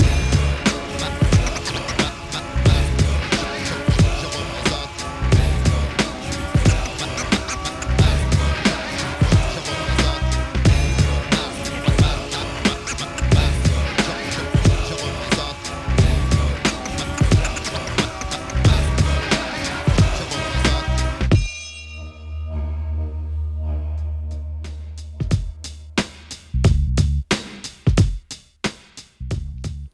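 A dense hip-hop beat with steady heavy kicks and layered instrumental textures plays without vocals as the instrumental ending of a French rap song, then thins out into a sparse, bass-heavy outro with the high end dropping away.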